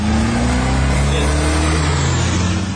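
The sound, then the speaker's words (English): A loud drag racing car engine revs steadily in Durban, its pitch gradually climbing in a sustained roar with no one speaking. “Illegal drag racing has blown smoke in the face of Durban”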